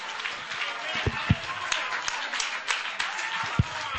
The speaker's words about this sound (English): Would you clap your hands if you're a witness in the house of God tonight that you're saved from the waters of this world?